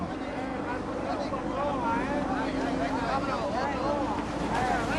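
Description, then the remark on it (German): Many men shout and call over one another above a steady wash of splashing, churning water, as fishermen hoist heavy tuna from raised nets onto boats in traditional almadraba net fishing. “Die Männer versuchen, die schweren Fische auf die Boote zu hieven.”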